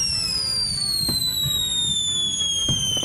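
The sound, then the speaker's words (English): Firework rockets whistle with steady, slowly falling high-pitched tones, the whistle made by gas released as layers of organic salt and potassium burn, while two sharp crackling bursts pop through a rumbling, continuous backdrop of explosions. “As each layer burns, it slowly releases a gas, creating the whistling sound associated with most firework rockets.”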